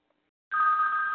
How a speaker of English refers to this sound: Let's see. Ah, my cell phone is ringing.